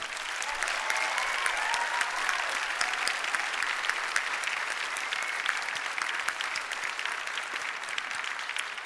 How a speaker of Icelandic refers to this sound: ef ekki að klappa fyrir öllum sem hafa komið fram